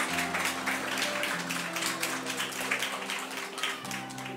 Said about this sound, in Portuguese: Eu posso ouvir um amém da igreja? Fique de pé e dê uma salva de palmas para Jesus bem forte. Aleluia.